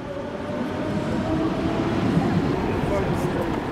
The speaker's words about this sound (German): Samstagmorgen auf dem Parkplatz einer S-Bahn-Station im Kölner Süden. Ein älterer Mann steigt aus einem Taxi. Eine junge Frau hastet mit ihrem Rollkoffer rüber zur S-Bahn.